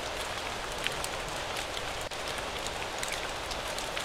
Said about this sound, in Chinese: 今夜的运城下起了小雨